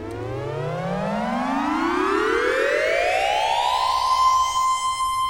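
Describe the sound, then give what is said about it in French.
A magical flute-like tone from a small golden flute being blown glides steadily upward in pitch for several seconds, then holds a bright sustained high note. It is loud and continuous, with no voices. “Joséphine souffla, et aussitôt son cartable se mit à gonfler.”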